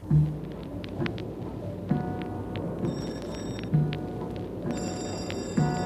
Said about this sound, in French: Une longue sonnerie.